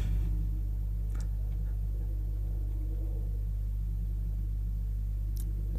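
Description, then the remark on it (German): A steady, heavy low droning rumble holds at an even level throughout, like an airplane passing overhead, with a couple of faint clicks and no voices. “Machen wir jetzt jedes Mal eine Flugzeugpause, wenn Flugzeugpause.”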